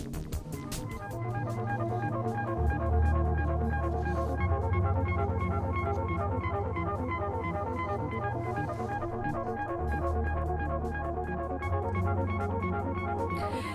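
An electronic music track with a steady pulsing rhythm, repeating synth patterns and a deep sustained bass entering after a couple of seconds, playing loud and continuous with no voices.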